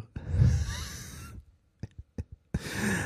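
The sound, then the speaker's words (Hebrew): A man imitates his own loud snoring in bed at night: a long, rattling snore, a few short snorts and clicks, then a second raspy snore starting up, all fairly loud with no talking. “היא אומרת לי, כן, אתה נוחר ממש חזק, אני כבר רבע שעה מנסה להירדם.”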